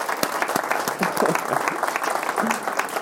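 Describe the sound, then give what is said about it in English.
An audience applauds a team steadily, a dense wash of many hands clapping at once with sharp overlapping claps, sustained at an even, fairly loud level throughout. “So if we could quickly round of applause to my team.”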